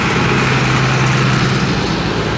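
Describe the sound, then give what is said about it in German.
A tractor engine rumbles loudly as tractors drive past one after another in the evening, a steady low diesel drone with broad mechanical noise that holds constant throughout, with no voices. “Und der Trecker kommt vorbei und noch einer.”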